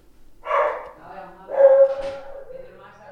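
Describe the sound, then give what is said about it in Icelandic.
A female border collie named Kría barks twice in the entrance hall of a home in Árbær: a short loud bark, then a second later a longer, higher-pitched bark that trails into a whiny yelp, with faint background sound in between. “tíkina Kríu sem létt aðeins vita af sér í andirinu.”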